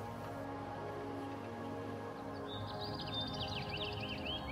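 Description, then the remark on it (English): Birds chirp at sunrise on a golf course in quick, overlapping bursts that start about halfway through and continue to the end, rising over a steady, humming background drone. No one speaks. “There's something special about waking up with the birds. The sound of sunrise.”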